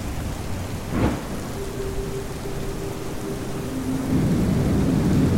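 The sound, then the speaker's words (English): A thunderstorm over the ocean, with flashing lightning and rising waves: heavy, steady rain hissing throughout, one sharp thunderclap cracking early on, and a low sustained rumble underneath that swells slightly toward the end. No voices. “Around them, the ocean swelled, rising waves reflecting the flashing lightning.”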